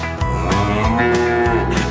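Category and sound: animal, cow mooing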